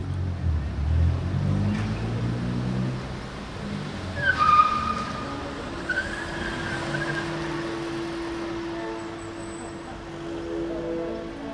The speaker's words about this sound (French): Aujourd'hui, L'endroit a bien changé et se retrouve coincé entre plusieurs immeubles, quadrillés par des larges rues où circulent les voitures.